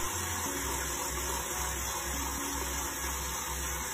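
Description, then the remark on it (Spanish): A steady electric mixer motor whirs continuously as it whips egg whites with a pinch of salt until they begin to foam, with a broad hiss and a faint low hum holding constant throughout, fairly loud, no voices. “Y voy a arrancar con el batido. Una vez que comienzo a batir y las claras empiezan a espumar, agregar el azúcar reservado en forma de lluvia.”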